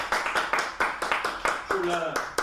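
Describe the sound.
Applause in a steady rhythm, about ten sharp, even claps over a couple of seconds, with a short voiced sound breaking in near the end.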